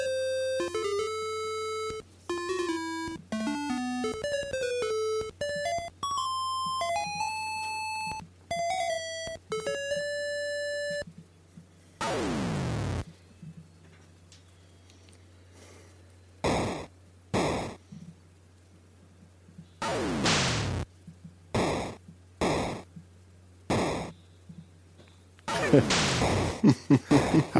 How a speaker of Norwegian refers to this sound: Klassisk Atari 2600-lyder der, altså. det er 2600, ja.